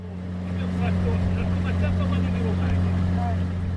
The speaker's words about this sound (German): Unterwegs im Motorboot auf den Valli Comacchio, grünliches Wasser, vom Wind leicht geriffelt. Ringsum flacher Horizont.